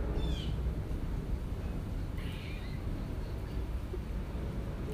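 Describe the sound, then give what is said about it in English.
Two brief, high-pitched squirrel calls ring out against a steady outdoor rumble, with a bird chiming in faintly. Nobody speaks. “Thanks for joining me in this squirrel that's been out here yelling the whole time.”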